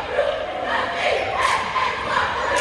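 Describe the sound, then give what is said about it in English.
A large crowd cheers in a steady, dense roar of many voices, loud and sustained throughout with small swells but no clear breaks. “Now we're cheering back, Bubba.”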